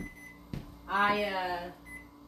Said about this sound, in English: sorry about the beeping, I'm making homemade bread.